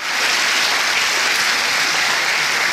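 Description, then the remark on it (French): A long row of dominoes topples in a chain during a domino-toppling record attempt, making a dense, steady rush of tiny clicks and clatters that holds an even loudness throughout, with no voices. “c'est bien ça, une tentative de record de tombée de dominos”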